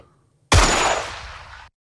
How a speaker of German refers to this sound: Das ist ein Geräusch, das jedem, der einen Schuss muss abgeben durch Mark und Bein geht und in vielen Fällen auch noch lange begleitet.